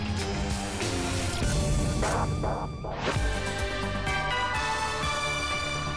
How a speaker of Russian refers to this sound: Использовал я этот региональный джингл.